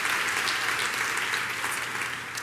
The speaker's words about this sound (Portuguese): Dá uma salva de palmas ao Senhor, por favor, celebre por isso, em nome de Jesus.